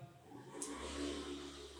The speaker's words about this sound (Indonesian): ada motor lewat